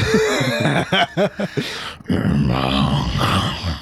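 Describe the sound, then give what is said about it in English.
A voice imitates a giant crocodile's growl: a few short guttural pulses, then a long, raspy, rumbling snarl held for a couple of seconds, loud. “Uh, now Bertram, kind of sleeping right there on the gutter starts hearing the growl of a giant crocodile.”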